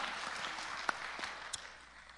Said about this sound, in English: Yeah, that's worth clapping about. Yeah, woo!